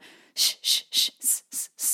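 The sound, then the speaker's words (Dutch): Six short, rhythmic bursts of hissing breath, a sharp pulsed 'sss' exhaled in quick succession, fairly loud, with a soft breath just before the first pulse and no talking. A breathing exercise: inhaling through the nose into the belly, then exhaling on an S. “inademen door de neus, door de buik en dan op een S uitademen, zodat je een heel actieve ademhaling krijgt.”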